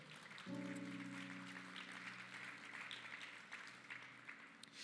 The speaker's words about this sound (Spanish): Le damos un aplauso a la palabra del Señor.